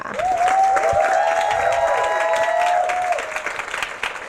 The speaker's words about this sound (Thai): ก็เสียงปรบมือให้จิมดอนแน่นด้วยค่ะ